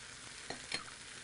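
Chipotle pepper and tomatillo sauce sizzles steadily in a hot pan as its liquid is reduced before eggs are added, a continuous bright hiss with two brief louder clicks or stirring scrapes partway through; no one speaks.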